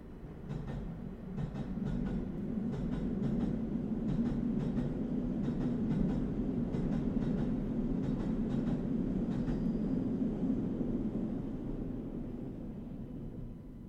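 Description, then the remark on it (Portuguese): A train rumbles past, a steady low roar building and fading, with rhythmic clickety-clack from the wheels crossing rail joints throughout. No one speaks. “Espera aí, Júlio, que vai passar um comboio.”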